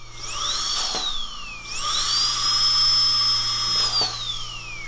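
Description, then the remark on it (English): A dentist's drill whines at a high pitch, spinning up and dipping briefly, then revving again into a long steady shriek before winding down. Fairly loud, with no voices. “Do your dentist bit, but just cut out the sound of the drill.”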